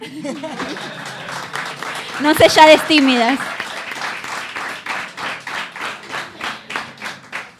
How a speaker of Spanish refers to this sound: Un aplauso, sí.